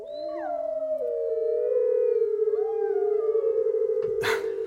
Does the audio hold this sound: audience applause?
no